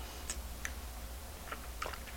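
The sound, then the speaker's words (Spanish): A teaspoon clinks against a cup of black coffee in a few light, bright taps spaced irregularly, made as the program's musical jingle, faint over a low steady hum, with no talking. “Después de este buchito amargo que he refrescado con una cucharita y de paso he hecho el chinchín, que es la cortinilla musical del programa”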